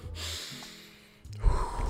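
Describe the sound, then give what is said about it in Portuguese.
A slow, airy breath drawn in, followed by a louder, rushing exhale toward the end. No talking. “Para quem tá escutando no podcast aí, vamos respirar. Vamos soltar agora”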